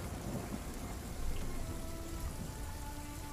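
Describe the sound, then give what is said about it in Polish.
Steady, heavy rain hisses continuously with a deep, low rumble of thunder beneath it, swelling briefly partway through, heard at a cave entrance during a sudden storm that rolled in after clear, pleasant weather; the lightning strikes seem to be right nearby. No voices, just the dense, even wash of a storm. “Słyszycie grzmoty a te uderzające pioruny wydają się być tuż, tuż, zaraz obok.”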